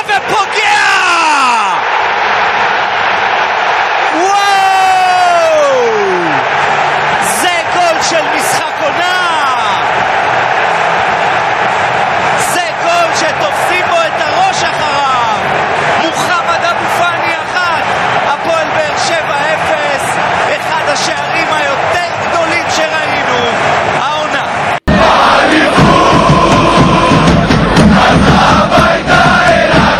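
crowd, stadium crowd cheering

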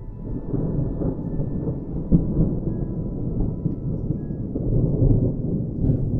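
nature, distant thunder rumbling

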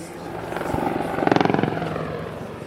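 vehicle, black Hawk helicopter flying

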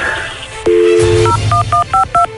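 signal or alarm, telephone number being dialed

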